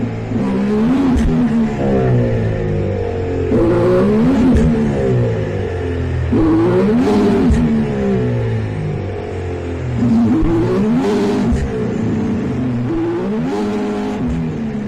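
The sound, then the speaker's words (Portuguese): A race car engine screams, heard from onboard the car, revving hard through repeated rising and falling pitch sweeps as it shifts gears, loud and continuous with rushing wind noise and no voices. “Tudo mexe loucamente, você não consegue ver porra nenhuma, o carro fica berrando no seu ouvido, o vento no seu ouvido, e os caras estão lá conversando no rádio como se nada tivesse acontecendo, sabe?”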